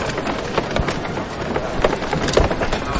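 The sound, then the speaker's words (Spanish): Dense, continuous wooden creaking and crackling from the wooden frame (canastilla) of a procession float (paso), with irregular sharper cracks scattered throughout and steady loudness, no voices. “Y antes Juan Luis escuchaba hasta el crujir de la canastilla del paso.”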